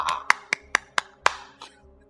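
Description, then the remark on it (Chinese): Five sharp hand claps in a quick, fairly even rhythm, crisp and bright, with a faint low hum underneath and no talking. “那么，首先呢，在这里掌声鼓励一下。”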